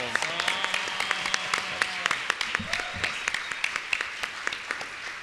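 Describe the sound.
Steady prerecorded applause welcoming the hosts of the show El Reto: a dense wash of many hands clapping continuously at moderate volume, with sharp individual claps standing out and faint voices murmuring underneath.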